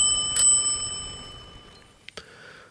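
A bicycle bell rings once with a bright metallic strike, its clear tone lingering and slowly fading, followed by a second short, lighter ring near the end. No voices.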